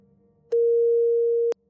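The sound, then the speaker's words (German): A single steady electronic telephone tone during a phone call to a family judge sounds for about one second, loud, starting and stopping with sharp clicks over a faint low background hum. “Ich telefoniere mit einer Familienrichterin, die Polygraphentests für ein geeignetes Werkzeug in Verfahren hält.”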